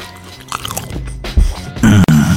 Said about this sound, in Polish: I uwaga, będę jadł. I wkłada on to do ust. I włożył. I gryzie. I ciamka. Do mikrofonu.